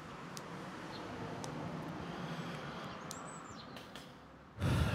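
Outdoor ambience where people are sitting outside, with a steady wash of traffic noise from passing cars, scattered bird chirps and a short whistle on top, then a louder rush of a vehicle at the very end.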